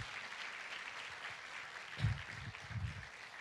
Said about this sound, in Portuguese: Dê salve de palmas a Jesus, as pessoas é que são importantes.